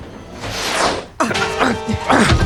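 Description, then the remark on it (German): A swishing rustle leads into a sudden thump as a handbag drops to the floor in a train's saloon car, followed by a short jumble of clattering and movement. “Jetzt ist meine Handtasche runtergefallen.”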